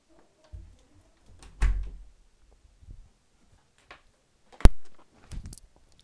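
A door being opened to let back in one who had just gone out: a dull thump, a sharp latch click with a brief ringing decay, and some soft shuffling and handling noises around them. No one speaks.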